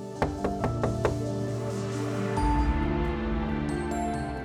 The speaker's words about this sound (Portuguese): E olha ela batendo na porta aí.